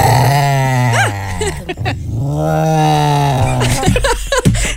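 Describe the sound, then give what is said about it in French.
A Basenji dog yodels loudly, a warbling, howl-like run of drawn-out calls with rising and falling pitch, ending in a few shorter yelps. No one talks over it. “La race de chiens, Basenji, entre autres, c'est euh, capable d'aboyer, d'aboyer, mais ça fait des drôles de sons.”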